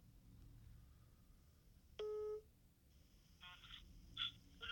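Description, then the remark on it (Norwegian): A phone line sounds a steady tone for about half a second, then a quick series of short dialing beeps follows, clear over a low background hum, as a phone call is placed for a live broadcast. “Det er Mats og Bent fra Mats og Bents podkast, aka Q-podkasten, som ringer.”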